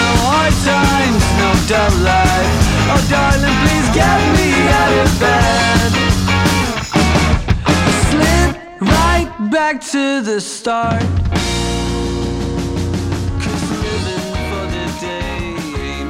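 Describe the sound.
A recorded song plays loudly with sung vocals over full band instrumentation, briefly thinning to a sparse break around the middle before the dense arrangement returns.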